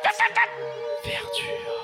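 Three quick, sharp dog barks in a row, followed by a high, drawn-out whimpering whine that carries on at moderate loudness with some faint background noise.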